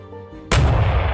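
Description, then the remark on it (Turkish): A single loud iftar cannon blast, fired from Rasat hill, booms out suddenly after a low steady hum. Its deep rumble lingers and rolls on through the rest of the moment. “top patladı.”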